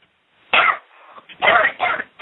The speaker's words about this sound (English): Just take deep breaths, deep, deep breaths, and cough them out. That's right. That's right. Deep breaths now. Cough them out, and they'll go take a deep cough all the way from the belly and they'll all come out.